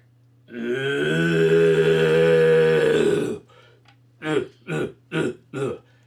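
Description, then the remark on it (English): A person imitates a red stag's roar with their voice, without a traditional red stag horn: one long, deep, throaty bellow lasting a few seconds, followed by four short, loud grunting bursts in a quick rhythm. “I'm doing a terrible job because I don't have my special horn they have like the very traditional horn, uh, red stag horn.”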